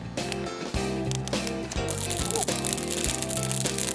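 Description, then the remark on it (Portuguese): A dense, steady crackling and hissing of dry pine needles burning fast, set alight with pine nuts (pinhão) thrown on top, fills the whole stretch with sharp snaps scattered through a lower, busy roar. “Olha o barulho, tá sapecando mesmo.”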